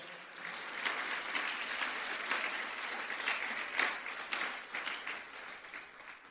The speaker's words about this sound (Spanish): Dele palmas fuerte al Señor, pues. Gloria a Dios.